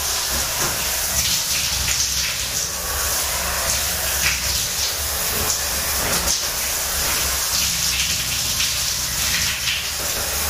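Water from a shower runs steadily, a dense, even hiss with a spattering patter of drops, holding at a constant moderate level with no voices for about ten seconds.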